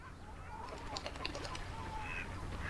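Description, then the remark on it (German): Ducks or similar waterfowl call in a busy, overlapping burst over a steady low outdoor rumble, with some brief flapping-like rustles, fairly quiet overall. “Gemeinsam diskutieren sie kompetent Ereignisse der Literaturwelt und füttern Enten.”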